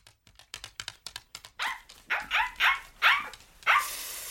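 A quick series of light clicking taps gives way to five sharp, high-pitched dog barks in an uneven rhythm, loud and clear with no one speaking.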